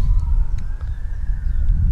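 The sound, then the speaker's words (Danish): A faint police siren wails in the background with a slowly rising tone, nearly buried under a heavy low rumble of traffic or wind; sirens are sounding all over the area around a narrow road beside a large truck rest area. “og ja, man vil jo i baggrunden kunne høre, der stadig er sirener over det hele.”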